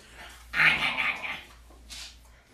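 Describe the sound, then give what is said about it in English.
A dog makes a throaty sound for about a second, rough and breathy like a low grumble, followed by a brief softer huff. No one speaks. “All right, time for some doggy ASMR.”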